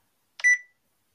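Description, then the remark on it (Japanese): A phone rings with one short, bright electronic tone as a call comes in, a brief beep-like burst with a steady pitch that fades quickly, heard clearly on its own with no talking. “なんか電話かかってきたんだけど。ほら、やっぱりさ早速かかってきたじゃん。”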